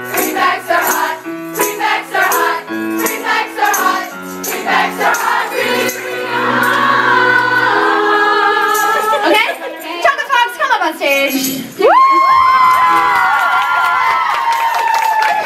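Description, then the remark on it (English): A live crowd chants "Prefects are hot" together in a loud, rhythmic group chorus, then breaks into a sustained burst of high-pitched cheering and whooping near the end. “Well, sing with me, and you better be louder than them.”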